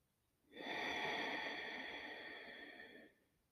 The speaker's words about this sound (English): And take five deep breaths.